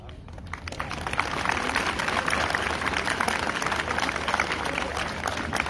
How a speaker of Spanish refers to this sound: Fuerte el aplauso nuevamente para todos los alumnos del grupo de primero C, de su maestra a cargo.